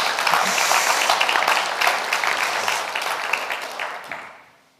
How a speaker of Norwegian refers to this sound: Er de ikke enig? Skal vi klappe for dem? Skal vi ikke det?